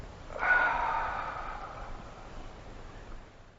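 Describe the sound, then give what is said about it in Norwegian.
A single long, breathy exhale during a yoga stretch, reaching up before moving over to the left side, starting abruptly and gradually fading over about a second and a half, followed by quiet room tone. No one speaks. “Strek opp og puster ut og kommer over på venstre side.”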